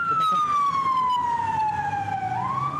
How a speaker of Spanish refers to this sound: Uy, ambulancia,